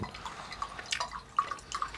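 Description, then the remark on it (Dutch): Water drips steadily while coffee is being made, with several distinct plinks and small splashes landing at uneven intervals over a soft background hiss. “Ik ben liever met water bezig. Met koffie.”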